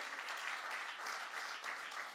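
Steady audience applause, a dense crackle of many hands clapping at an even, sustained level for a couple of seconds with no voices over it.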